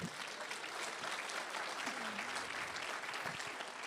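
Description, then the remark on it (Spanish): An audience applauds the Lord steadily, a dense, continuous wash of many hands clapping at an even loudness for several seconds with no clear break. “Vamos a la escritura y escucha, denle un aplauso al Señor si puede hacerlo.”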